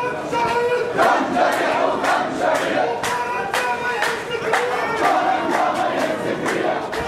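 A large crowd in a funeral procession heading to the cemetery chants together in loud, continuous unison, voices rising and falling in rhythmic surges with sharp accents every second or so, a dense wall of shouting with no pauses.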